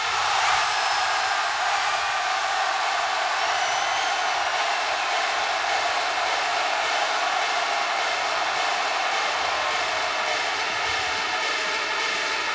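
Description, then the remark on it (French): A huge festival crowd at Electrobeach in Port-Barcarès, France, roars and screams nonstop for about twelve seconds, a dense, hissy wall of noise that stays loud and steady throughout with no distinct voices standing out, broadcast live on Fun Radio. “Vu qu'on est en direct dans toute la France, sur Fun Radio, j'aimerais que pendant 10 secondes, vous me fassiez le plus gros bordel de France.”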